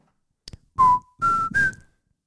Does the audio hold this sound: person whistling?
yes